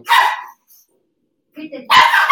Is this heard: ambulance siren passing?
no